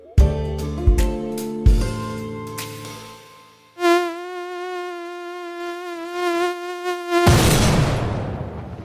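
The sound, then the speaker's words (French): A steady mosquito whine drones near someone's ear in the middle of the night for about three seconds, following a few plucked musical notes and cut off by a loud burst of rushing noise. No one speaks. “Punaise, un moustique qui vrombit en pleine nuit près de mon oreille.”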